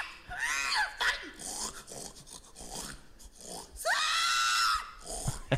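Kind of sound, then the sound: animal, pigs grunting and squealing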